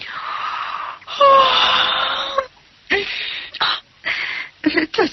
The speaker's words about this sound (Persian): خمیازه کشون گفت